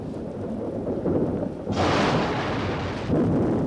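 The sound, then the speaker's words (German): A deep, rolling rumble of thunder from a thunderstorm following a flash of lightning, loud and sustained, with a bright crackling burst in the middle before the low roar continues. No one speaks. “Das Gewitter”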